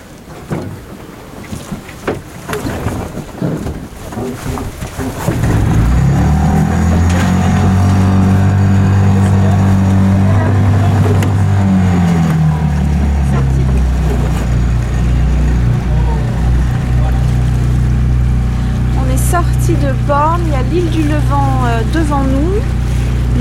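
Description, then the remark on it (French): A sailboat's inboard motor drones steadily and loudly at sea in a light wind, with Cap Nègre off to port, kicking in after a few seconds of wind and water noise, with faint voices briefly audible near the end. “On va mettre les voiles, arrêter le moteur.”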